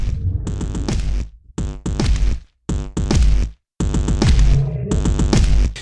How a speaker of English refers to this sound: That said, I like their raw, geeky feel, and some of their tracks, including the one I'm about to play, have just enough charm to make me look the other way when I hear a stinker.